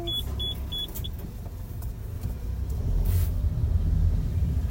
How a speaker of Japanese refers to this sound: 1月7日12時の音実家にみかんを届けた帰りマクドナルドのドライブスルーにおりました寒い中外で対応されていたのでいつも以上にお礼言いましたと最初のあの男性の方の店員さんの「はいはい」ってこのちっちゃいやつが入る感じ良かったですね